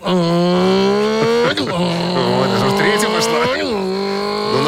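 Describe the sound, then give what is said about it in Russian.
A voice impersonator in a studio imitates a car shifting from first to second gear: the engine revving up in one gear, dropping briefly as it shifts, then climbing again in a continuous, loud buzzing drone that keeps rising in pitch. “А изобрази переключение с первой на вторую.”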